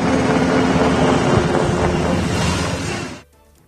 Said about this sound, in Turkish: Akçakaya'daki ziyaretlerini tamamlayan Genelkurmay Başkanı Orgeneral Necdet Özel ve beraberindeki komutanlar helikopterlerle bölgeden ayrılıyor.